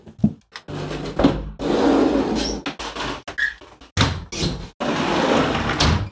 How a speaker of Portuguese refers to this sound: É, só que antes da gente comentar, eu preciso fechar minha janela, porque tá muito barulhento. Eu já volto.